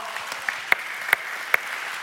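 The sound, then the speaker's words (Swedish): Audience applause, a steady patter of many hands clapping at moderate volume, with a few sharper individual claps standing out at irregular moments. “Eh, ska han få en applåd nu också?”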